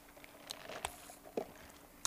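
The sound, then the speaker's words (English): A quiet drink being sipped: a few faint clicks and a soft slurping sip, then a sudden loud clunk at the end, with no talking. “wet my whistle because I'm doing a lot of reading here.”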